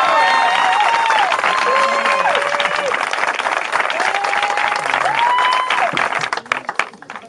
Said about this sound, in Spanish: Un fuerte aplauso para los novios, por favor.